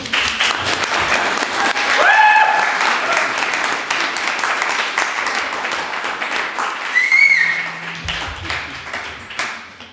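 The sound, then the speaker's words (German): Sustained audience applause at an event of a series, a dense crackle of many hands clapping steadily for the full ten seconds, with a couple of brief whistles rising above the clapping. “für den ich gerne einen Applaus hätte.”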